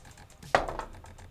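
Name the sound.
dice being rolled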